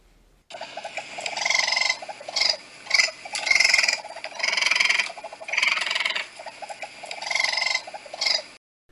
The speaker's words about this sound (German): Ja, ich sag's mal so, wer das Geräusch in Natura noch nicht gehört hat, der soll sich mal glücklich schätzen, denn es handelt sich hierbei um Waschbären.